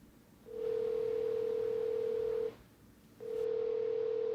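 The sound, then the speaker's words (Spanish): A steady electronic telephone tone sounds in two long, even stretches separated by a short silence, clear with no voices, like a phone line ringing through as another person is added to a phone call. “Déjame unirlo a la llamada.”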